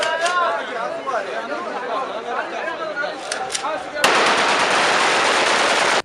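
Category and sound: signal or alarm, automatic rifle gunfire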